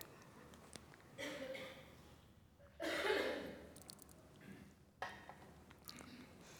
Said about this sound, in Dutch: ga even een slokje drinken. De mond is heel droog.